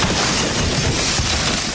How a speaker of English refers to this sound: It's Donald's plane, Air Force One, crashing into the ground, Moon Man. Air Force One.